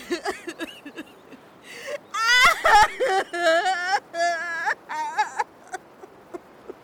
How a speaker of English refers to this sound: oh, that is some messy crying.